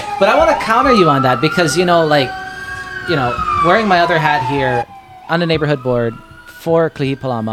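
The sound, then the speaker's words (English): An emergency vehicle siren wails steadily outside in the background, its tone slowly rising and falling, while a man talks continuously over it in the foreground. “Oh, you can hear the police sirens in the back.”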